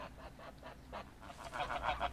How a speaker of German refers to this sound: Wiederum betrachtete er die Gänse. Diese lustig vorlauten Footballtiere, diesmal mit etwas Neid.